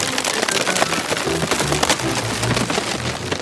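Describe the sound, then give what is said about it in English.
Loud cracking and splintering as an iron ring on a vat of hot, fermenting ale bursts under building pressure, with repeated sharp snaps over a continuous rain-like crackle and a low rumble underneath. “Pressure continued to build on the several remaining rings until an hour later when a crack was heard again.”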